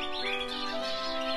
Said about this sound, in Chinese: 那些唱着歌的鸟儿，每年都要回到这个家里。